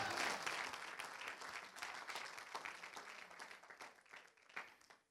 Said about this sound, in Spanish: Dele un aplauso al Señor Jesús.